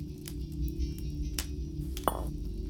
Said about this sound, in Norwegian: Den svenske ridderen setter fra seg vinglasset sitt